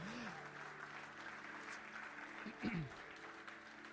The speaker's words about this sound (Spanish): Alguien le da un aplauso al Señor.